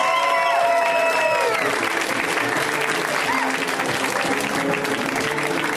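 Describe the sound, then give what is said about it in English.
An audience at a comedy show claps and cheers steadily for several seconds to welcome a comic on his first time on the show, a dense wash of applause with whoops and a few harmonic shouts rising over it early on. “When it's somebody's first time on the show, we always go nuts. So let's hear right now from Mr. Chris Thayer, guys.”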